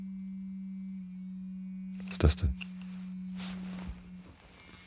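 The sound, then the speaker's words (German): A smartphone, apparently after a quiz game app crashed and set off continuous vibration, emits a loud, steady electronic tone that drones continuously and then cuts out near the end. A couple of sharp handling clunks and a person's brief speech come over it. “Mein Handy.”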